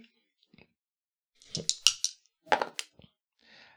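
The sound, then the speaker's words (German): Up to three dice clatter across a hard surface in two quick bursts of sharp, rattling clicks, fairly loud, followed by a faint rustle, with no one speaking. “Mittelschwierig, drei Würfel oder bis zu drei Würfel.”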